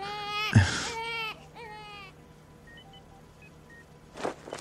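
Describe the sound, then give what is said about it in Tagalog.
A baby boy wails in a few strained, harmonic bursts for about two seconds while held by his father, then trails off into soft whimpers and near quiet, with a faint thump and rustle at the end. “Ang bait ng baby natin. Tumahan agad.”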